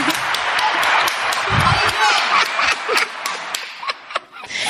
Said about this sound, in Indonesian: Uh, tepuk tangan. Tepuk tangan.